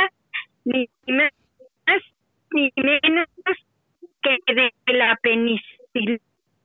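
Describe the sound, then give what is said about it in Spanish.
A voice over a thin, narrow-band phone line keeps breaking up, the speech arriving in short choppy bursts separated by abrupt dropouts and silences. “se está cortando mucho tu llamada.”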